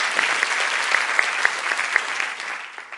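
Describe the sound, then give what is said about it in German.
A crowd claps steadily in applause for God, a dense wash of many hands with a few sharper individual claps standing out, then slowly thinning and fading toward the end. “Ja, gib mal deinem Gott einen Applaus.”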